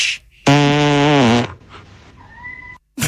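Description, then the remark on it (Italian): A loud, drawn-out fart lasting about a second, buzzing with a low, wavering pitch, then a faint brief high tone and quiet after it; no one speaks. “Tu c'hai il culo San Francesco, parli agli animali col buco del culo.”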